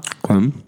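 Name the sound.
chewing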